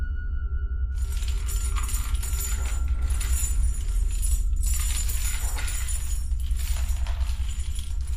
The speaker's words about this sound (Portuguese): Outro barulho frequente é o som de correntes arrastando, que alguns lobisomens carregam para dificultar ainda mais o seu fado,